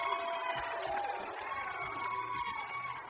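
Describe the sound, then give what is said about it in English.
A live crowd on a football field cheering and shouting at a Dan Patrick radio show broadcast, a dense, steady wash of many voices with higher yells rising through it, holding at an even loudness for the whole three seconds. “But we have this group in front of us cheering, and then there's people down the sidelines here on our football field, and nobody's cheering over there.”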